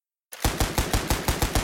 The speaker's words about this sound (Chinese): 枪声几乎是在直升机降落的那一刻同时响起。拿起武器，我们开始朝周围射击。